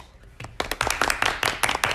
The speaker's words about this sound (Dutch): Nou, mooi. Ik zeg applaus.